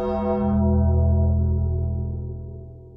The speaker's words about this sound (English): And remember, when the bell tolls,